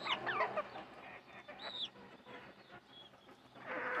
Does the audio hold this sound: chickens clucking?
yes